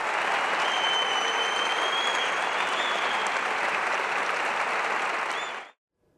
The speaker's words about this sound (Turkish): Orkestrayı ayakta alkışlayan izleyiciler duygu dolu anlar yaşadı.